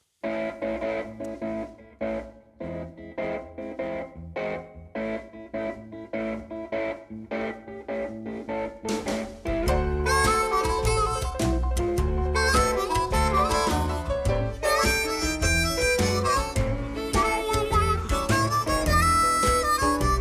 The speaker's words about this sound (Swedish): ska vi lyssna på det malliga ba basbandet på …?